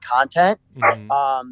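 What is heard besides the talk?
dog barking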